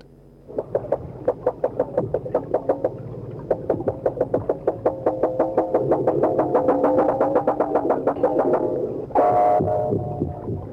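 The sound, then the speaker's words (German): Male walrus gong sounds: a long series of resonant, ringing pulses in quick rhythmic succession, steady and fairly loud, ending with a brighter, tonal bell-like note near the end. “Walrossmännchen Gonglaute.”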